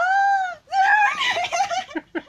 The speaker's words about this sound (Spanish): Gritos de una persona apenada.